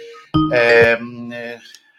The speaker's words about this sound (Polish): Ktoś dzwoni, więc odbieramy oczywiście